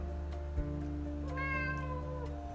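A cat lets out one drawn-out meow, clear, rising and then trailing off over a steady low tonal hum. No one speaks.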